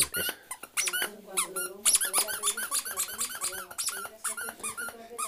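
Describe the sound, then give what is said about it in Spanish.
A rubber toy squeaks rapidly and repeatedly, loud, in quick irregular bursts as a dog chews and plays with it, with faint dog noises mixed in. “Te mola el juguete, ¿eh? ¿Jugamos?”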